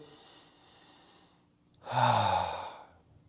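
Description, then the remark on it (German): Someone demonstrates shallow breathing: a faint, airy inhale in which the belly does not go out and the chest does not rise, a brief pause, then a louder, short breathy exhale like a sigh, with no talking. “stelle ich immer wieder fest, dass er eine flache Atmung hat. Das heißt, wenn er einatmet, der Bauch geht nicht raus, der Brustkorb hebt sich nicht leicht, es geht nicht um dieses Atmen, sondern wirklich so.”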